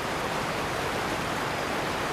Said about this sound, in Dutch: Dit zijn de igazu watervallen. En dit stuk hier heet hier de mond van de duivel. Nou waarom, eh, dat kan iedereen wel zien. Het water komt hier van alle kanten...